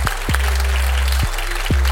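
Scattered applause from a small group, a soft continuous patter of clapping broken by a few louder, thumping claps, with a steady low hum beneath and no voices.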